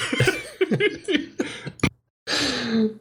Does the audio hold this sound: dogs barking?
no